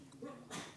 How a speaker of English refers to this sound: bless you.